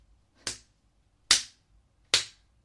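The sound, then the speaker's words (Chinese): Three sharp slaps as a person slaps their own face toward a camera land at a steady, unhurried pace, each a loud, crisp smack that dies away quickly, with near silence and no voices between them. “来，对着镜头长嘴。”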